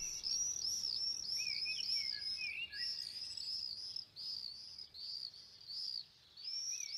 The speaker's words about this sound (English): Friends send me birdsong recordings from London and elsewhere. They are singing louder under lockdown.